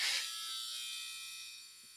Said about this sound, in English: Sorry, my I'm at home that's my dryer telling me it's time to go change it. Uh, forgot about that.